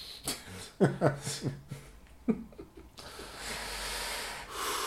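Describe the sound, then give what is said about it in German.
Heavy, rhythmic snorting breaths pump in and out, a series of harsh nasal huffs that give way to a steady rushing hiss of air. “Atmen. ist gut, wegen der Luft.”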